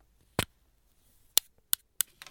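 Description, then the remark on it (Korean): Small metal parts of a fountain pen being worked loose as its nib is pulled out to take the pen apart for cleaning and repair: five crisp clicks, a single one followed by a quicker cluster of four, with quiet between them and no talking. “이렇게 빼서 펜촉 이렇게 빠져요.”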